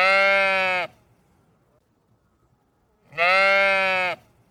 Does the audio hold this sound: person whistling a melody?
no